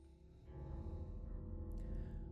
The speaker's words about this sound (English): Just somebody like smashing a piano is almost what it sounds like, just hitting some keys. And just kind of like humming sound along with it, given that kind of like dark dreading vibe.